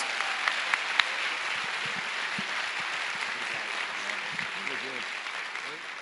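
Steady applause from a crowd giving a strong round of applause to the Lord, a dense continuous patter of many hands clapping with a few sharper claps early on, holding at an even level for about six seconds.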